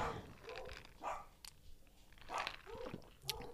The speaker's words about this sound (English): Sorry, I still don't have a soundproof room free of the dog.